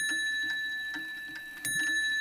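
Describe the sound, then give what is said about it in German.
An ornate table clock ticks steadily at a brisk, even pace, clear, with a faint sustained metallic ring hanging underneath and no voices. “Dann konnte man zum Beispiel auch Schlagwerke ein- und ausschalten oder den Wecker stellen.”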